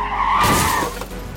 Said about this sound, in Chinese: 而从后追上来的车子啊，撞上了无人驾驶的机车之后啊。开始失去了控制，左右剧烈的晃动，在一阵剧烈的轮胎摩擦声之中，那一辆车子驶出了左边的路面，直插入小树林中。